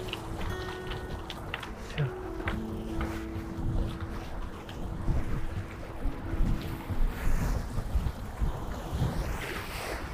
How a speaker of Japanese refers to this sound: いいですね波の音聞こえますかねこれこんな感じでまあ、ただの海なんですけれども